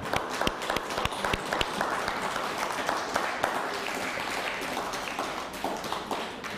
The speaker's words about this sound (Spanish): Un fuerte aplauso a Córdoba.